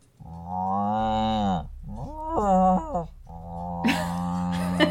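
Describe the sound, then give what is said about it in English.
A person imitates a cow, letting out three drawn-out moos with bending pitch, the last one rougher and breathier, with no other talking. “or are you mooing? I'm yeah. definitely mooing.”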